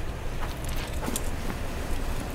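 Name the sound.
car approaching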